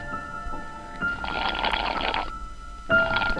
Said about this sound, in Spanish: Casi no puedo ver. Está lloviendo. La visibilidad es casi nula.